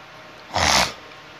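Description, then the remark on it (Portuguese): A single sharp, fairly loud sniff through a blocked nose in hot, dry, dusty weather, a brief breathy rush of air lasting under half a second amid a quiet background, with no talking. “Cara, desculpa por fungar, é porque tá um clima de merda.”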